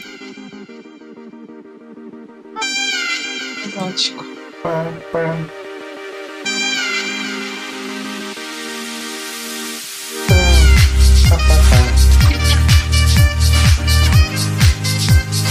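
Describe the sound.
Saxophone music plays loudly and continuously in bright, wailing melodic phrases, with a heavy bass beat kicking in partway through and driving the rest of the tune.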